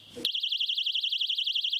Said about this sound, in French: Alarme